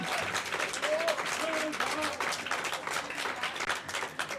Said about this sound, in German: einen großen Applaus bitte hier in Straubing.